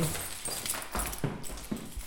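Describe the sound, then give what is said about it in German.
A large bunch of keys jingles and clinks as it is lifted out of a desk drawer, a bright metallic rattle with several sharper clacks over about two seconds, no voices. “holt einen großen Schlüsselbund aus der Schreibtischschublade.”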